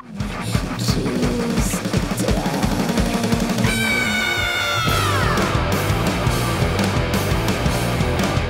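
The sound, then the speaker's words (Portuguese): Over loud, pounding music, a band member lets out a shrill, eagle-like screech at a break in the song, holding for about a second before sliding downward and fading back into the beat. “parece uma águia. Eu sempre, sempre quando eu vou ensaiar, eu faço uma águia, assim, se eu, se eu tô.”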